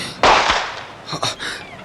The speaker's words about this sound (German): Das waren Schüsse. Jemand hat geschossen.